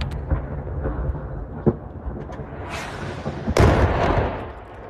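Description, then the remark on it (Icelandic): A powerful bomb explodes right outside an apartment building on the first day of an invasion. A sudden loud boom rolls into a long rumbling decay. It is preceded by a few sharper bangs over a steady low background rumble. “Á fyrsta degi innræstarinnar tók hún myndbanda því þegar að sprengja fjall beint fyrir utan húsið.”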